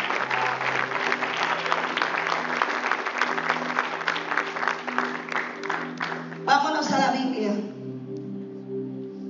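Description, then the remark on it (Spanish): An audience applauds the Lord with steady, dense clapping for several seconds, over a sustained low musical tone. The applause thins toward the end as a voice begins. “Den un aplauso al Señor.”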